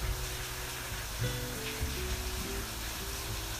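Heavy rain pours down in Rondonópolis in a steady, dense hiss that fills the whole scene without a break, with soft sustained low tones drifting underneath.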